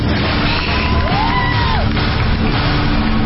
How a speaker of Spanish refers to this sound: deje de gritar porque se oye, niños dejen de hacer aspavientos Serenense.